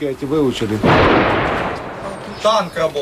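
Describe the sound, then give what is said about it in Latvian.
A tank gun fires once: a single heavy, booming blast with a long rolling rumble that fades out, with a man speaking just before and after it. “Tanks strādā.”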